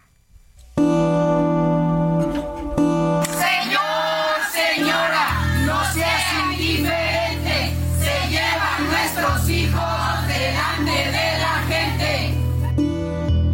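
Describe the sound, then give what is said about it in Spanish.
A protest crowd of mothers and fathers in Mexico who are searching for their children chants slogans in loud, rhythmic unison over a steady low droning tone, with the chanting starting a few seconds in and continuing to the end. “Estas son las consignas de siempre en México de madres y padres que buscan a sus hijos.”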